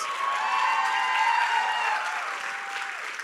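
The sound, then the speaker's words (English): A large crowd applauds steadily in praise of Jesus, with a few cheers and shouts mixed into the sustained clapping, loud throughout. “Come on, give Jesus some praise.”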